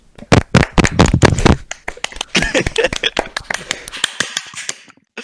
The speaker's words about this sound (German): Ähm, ich möchte danken an unseren Tonmann. Der hat heute wirklich eine ausgezeichnete ähm, Leistung braucht. Nur einen lauten, fetten Applaus an einen Donmann.